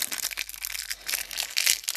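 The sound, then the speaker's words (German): A crinkly plastic bag of Haribo Merry Christmas gummy bears is opened, a steady run of sharp rustling and crackling that swells and fades for a couple of seconds, with no voices. “Ah, nicht wundern, wenn ihr ein bisschen rascheln hört. Das ist, sind die Tüten.”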